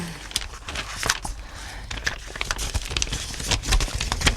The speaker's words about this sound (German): Blättert die Bilder rasch durch.